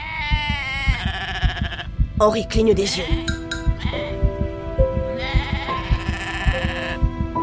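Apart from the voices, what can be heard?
herd of goats bleating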